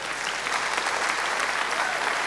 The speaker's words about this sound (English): Ladies and gentlemen, there's nothing more we can say. A round of applause for Bruce Sterling.